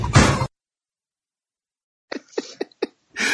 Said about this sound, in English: Someone knocked on my door